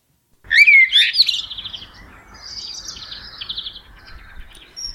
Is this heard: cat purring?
no